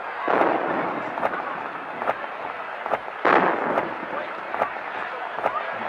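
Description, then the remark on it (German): A series of booming cannon salute shots fired at a harbor to welcome the emperor arriving by steamboat, about seven or eight sharp reports at uneven intervals, over a steady wash of outdoor crowd noise, with one noticeably heavier blast midway. “Quellerschüsse aus Kanonen begrüßen den hohen Gast.”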